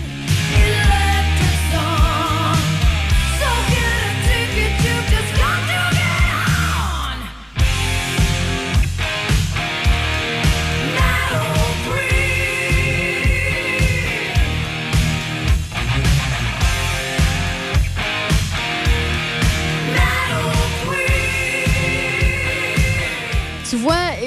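A loud, driving rock song with a steady pounding beat, dense distorted guitars and a sung vocal line, broken by a brief dropout about a third of the way through before the band crashes back in.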